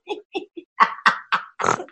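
A person makes a rapid run of seven pig-like snorts: three short, softer grunts followed by four louder, harsher, raspier snorts in an uneven rhythm, with no talking.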